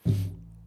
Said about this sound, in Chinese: 嗯，抱歉，这小桌子放这个麦架就是很容易踢到，嗯。